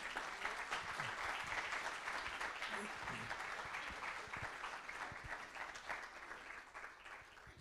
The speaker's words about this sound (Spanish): Entonces quisiera eh, que los recibamos con un fuerte aplauso, por favor.